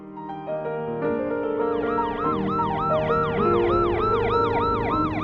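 An ambulance siren wails in repeated rising and falling sweeps, loud and steady, over a low engine-like rumble, with no talking.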